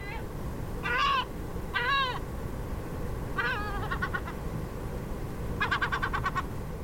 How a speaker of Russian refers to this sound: А вот голос серебристой чайки.